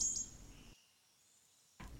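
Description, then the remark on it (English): Faint, high-pitched chirps from small birds singing a tune to each other on a sunny day sound over a low background rumble, briefly dropping to near silence before the ambience returns. “They are full of joy, these little birds, and their singing is so beautiful, it's almost magical.”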